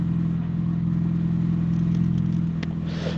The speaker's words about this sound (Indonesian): ini ada suara mobil